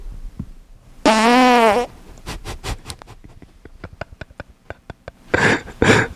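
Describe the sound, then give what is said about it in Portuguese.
A loud, buzzy fart with a wavering pitch lasts almost a second, followed by a scattered run of sharp clicks and then two rough, breathy bursts near the end. No one speaks. “com, com peido e sem peido.”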